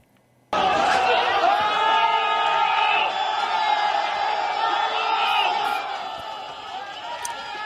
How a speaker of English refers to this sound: This new video here shows angry protesters shouting and throwing objects at riot police in the major city of Guangzhou.